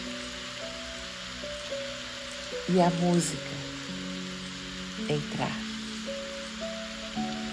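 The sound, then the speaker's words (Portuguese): Steady rainfall hisses throughout, blending with soft sustained music tones, while a calm voice speaks briefly in the middle. “Simplesmente respire Deixe a chuva chover”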